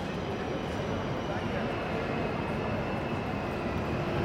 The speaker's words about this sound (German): Unser Startpunkt war die große Halle des Hauptbahnhofs Zürich.